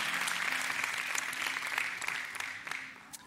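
A crowd applauds steadily, dense overlapping claps forming a bright crackling wash that holds for a few seconds before thinning out and fading at the end.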